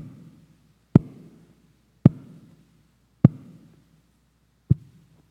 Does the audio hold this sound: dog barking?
no